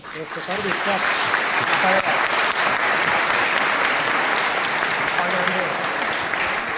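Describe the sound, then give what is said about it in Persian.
Sustained applause from an audience of about 600 people, a dense, steady wash of many hands clapping at once for about seven seconds, loud with no gaps. “من خواهش میکنم به افتخار خودتون”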